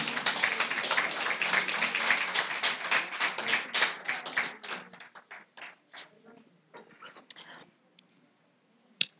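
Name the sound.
audience hand clapping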